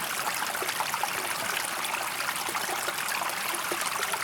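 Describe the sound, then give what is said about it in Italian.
A stream flows through the woods at the foot of Corno alle Scale, among chestnut trees. Its steady rushing is a continuous bright hiss of water with small gurgles and splashes throughout, moderately loud and unbroken, with no voices. “Forse anche voi che siete all'ascolto vi siete aggirati quest'estate o in qualche estate della vostra vita tra i boschi ai piedi del Corno alle Scale Forse questo suono di acque che scorre vi accompagnate nelle vostre passeggiate fra castagni”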